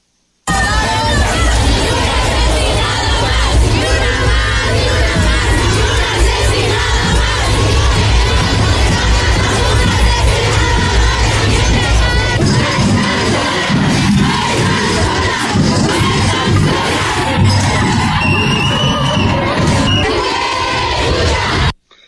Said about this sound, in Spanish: Escuchamos algunas, algunos gritos, reclamos que se produjeron en la manifestación.